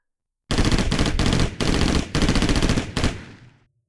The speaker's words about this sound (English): Gunfire! Good old fashioned, human, very deadly gunfire. It's much louder in reality than it is in movies, and it's much scarier to have it aimed at you than it is to see it in a movie.